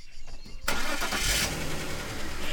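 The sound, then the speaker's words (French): A car engine cranks and catches abruptly after a quiet moment, then settles into a loud, steady rumble with a brief surge of revving. It is Nadine's husband's car, which she has just got into, around 14:15. “Une fois le déjeuner terminé, vers 14h15, Nadine embrasse sa fille et monte dans la voiture de son mari.”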